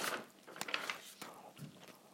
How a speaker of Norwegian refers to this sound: Sorry, jeg spiser og herjer på. Nei, det er ikke sorry for det. Jeg må ha mat.